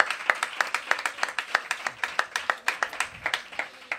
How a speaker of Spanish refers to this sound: Aplaudáis, sentiros libres.